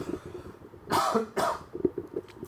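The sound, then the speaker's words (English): Two harsh coughs in quick succession, the first slightly longer, followed by quieter breathy rustling; no one speaks. “Coughing because I'm dying.”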